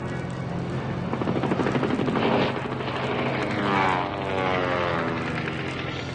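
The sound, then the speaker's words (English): A loud, droning airplane engine roars from behind, its pitch swelling and sliding as it nears, with rumbling rising and falling over a few seconds and no voices. “Behind us! A plane! They're shooting at us!”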